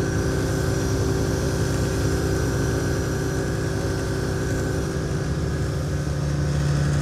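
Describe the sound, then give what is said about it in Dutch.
Steady, loud drone of a small aircraft engine in flight over the Oldermaten nature area east of Zwartsluis, in the Netherlands. A constant low hum with strong tonal harmonics and a faint whistling hiss on top, unbroken for the whole stretch. “We vliegen nu over de Oldermaten, een natuurgebiedje.”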